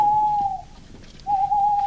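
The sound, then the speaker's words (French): Two long, steady owl hoots, each a pure sustained tone, separated by a short pause. The calls are clear, with no one speaking. “Planqués dans les fourrés comme des sioux, imitant le cri de la chouette ou du hibou pour communiquer, les Blancs surgissent d'un coup en hurlant « Rambard !»”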